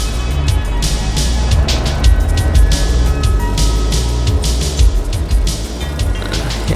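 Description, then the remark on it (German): A van carrying two Japanese men drives off, its engine a steady low rumble mixed with rough, hissing road and tire noise that holds a fairly even, loud level throughout. No voices. “Zwei Japaner fuhren mit dem Transporter weg.”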